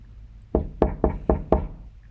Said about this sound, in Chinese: 大野狼一下就来到了外婆家，已经敲起了外婆的门。